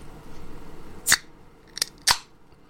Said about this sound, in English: Oh, that's got just the right pop. That's a good one. That's a good Miller Lite right there. Nice and fresh.